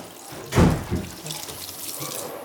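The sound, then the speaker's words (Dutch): Running tap water splashes over celery being washed, with a sharper burst of splashing near the start followed by a steady, softer hiss of flowing water with faint drips. “Wassen en snijden.”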